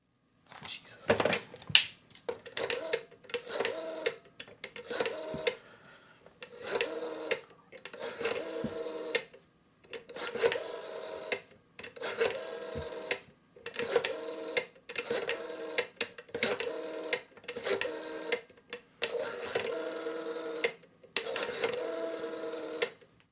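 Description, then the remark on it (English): A rotary phone dial is turned again and again, each spin a short mechanical whirring, clicking burst followed by a brief pause, repeating steadily about a dozen times. “Hey, Rotary phone, dial Michael Gomez.”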